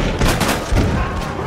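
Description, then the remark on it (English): Several loud revolver shots fire in quick succession, each a sharp blast that leaves a rumbling echo hanging between the bangs. “But imagine then hearing bang, bang, bang.”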